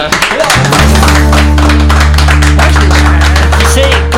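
An audience claps steadily for about four seconds, a dense, even patter of many hands, with a low sustained musical tone coming in underneath shortly after it starts.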